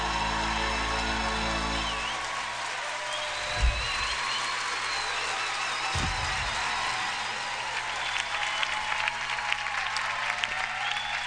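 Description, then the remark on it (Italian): Sustained audience applause for Morgan on X Factor fills the whole stretch, a dense steady clatter of many hands clapping with a few louder bursts, and no one speaks over it. “Factor, un grandissimo applauso.”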